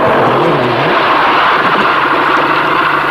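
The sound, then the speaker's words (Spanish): The engine of Ángel Nieto's racing motorcycle, 'la tricampeona', revs loudly, its pitch rising and dipping before settling into a steady, rough high-rev roar that fills the whole three seconds, with no talking. “hasta que hizo un poco de dinero y se compró la tricampeona, la moto de Ángel Nieto, que en ese momento había hasta versiones de juguete.”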